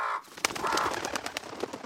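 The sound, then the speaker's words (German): A few birds, startled by someone shouting and clapping hands loudly, burst into flight: a quick irregular flurry of sharp wingbeats flapping, with brief squawking calls mixed in. No one speaks. “Ein paar Vögel ließen sich von ihm aufschrecken und flatterten davon.”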